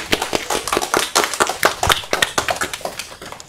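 An audience applauds steadily, a dense patter of overlapping hand claps that stays fairly even throughout, with no voices over it.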